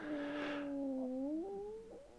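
A drawn-out, whiny stomach growl with a tonal, creaky pitch that slides and wobbles for about two seconds, clear, with no talking over it.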